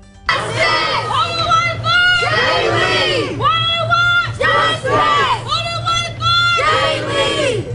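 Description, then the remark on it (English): A large crowd of protesters outside a courthouse in Lafayette County chants loudly in unison, demanding justice during a bond hearing, voices rising and falling in repeated rhythmic phrases, continuous, with a low steady hum underneath. “As the hearing goes on inside the courtroom, protesters outside the courthouse are demanding justice.”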